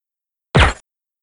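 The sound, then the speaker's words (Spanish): A single suppressed pistol shot in the classic movie style: a sharp, breathy thwip with a quick swishing tail, fairly loud, isolated in silence. “El, sonido clásico del silenciador.”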